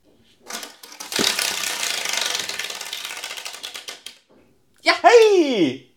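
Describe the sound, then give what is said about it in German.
A spinning quiz game wheel with green and red segments ratchets with rapid, loud clicks that gradually slow and space out before stopping on green, followed by a short voiced exclamation. “Du hast so, so schön gedreht.”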